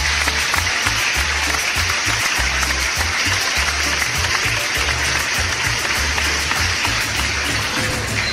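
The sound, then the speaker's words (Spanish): An audience at a woman's 100th birthday celebration applauds steadily for about eight seconds, dense and loud clapping with no letup, over a low, rhythmic thumping pulse beneath it. “Cumplió un siglo de vida y un aplauso para ella.”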